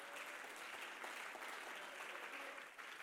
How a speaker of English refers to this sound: How many would jump to your feet and clap your hands and say, The Lord has been good to us?